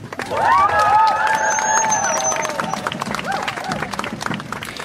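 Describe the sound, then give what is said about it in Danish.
A large crowd at a women's march in Aarhus, Denmark, cheers loudly, with high whoops and sustained shouts rising over a dense wash of clapping and voices that continues steadily throughout. “som vi altså her hørte til øh, Kvindemarsch i Aarhus.”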